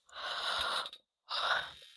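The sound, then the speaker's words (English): A breathy yawn: a long airy inhale, a brief pause, then a second drawn-out breathy exhale. No talking, just the hushed rush of breath. “I'm so sorry if I just made you yawn.”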